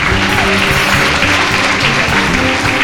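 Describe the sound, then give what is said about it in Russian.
A crowd claps steadily and loudly for the sound engineer, a dense continuous patter of many hands filling the whole moment, with a faint murmur of voices underneath. “И, и вы можете похлопать побольше, потому что”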